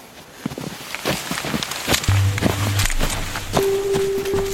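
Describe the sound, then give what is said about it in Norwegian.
Steady footsteps crunch at a walking pace along a path through rugged, heavily vegetated terrain in Baneheia, running right past a crime scene, with faint rustling and a low hum drifting in partway through. “Og så vil du se når vi går den stien som går rett ved åstedet, kan du ikke se åstedet fra.”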